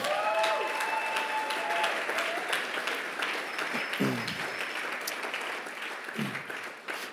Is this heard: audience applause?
yes